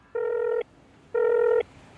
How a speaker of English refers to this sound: when she gets inside and she makes a phone call.